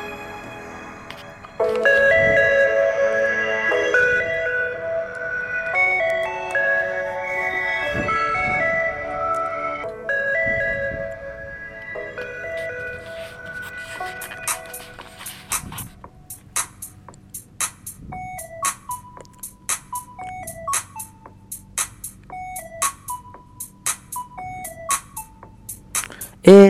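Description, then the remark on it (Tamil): Tinny backing music plays from a phone speaker for someone to sing along to: sustained synth chords at first, then a plinky, jingle-like melody of repeated short electronic notes, with no voice over it. “so அவங்களுக்காக பாட போறீங்க ஸோ உங்க ஃபோன்ல இருந்து அந்த மியூசிக் ஆன் பண்ணி பாடுறீங்களா”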